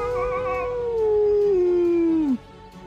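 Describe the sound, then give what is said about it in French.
A single long, wailing howl in the night, accompanied by cries of pain, slides slowly downward in pitch for a couple of seconds, loud, then cuts off abruptly into quiet background. “Puis un second, accompagné de cris de douleur.”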